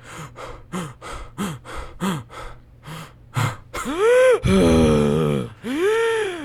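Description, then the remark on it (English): A man breathes heavily after a climb: a quick string of short, rapid, heavy pants, then three long, strained, voiced gasps that sound almost like groans. “He was breathing heavily, almost gasping.”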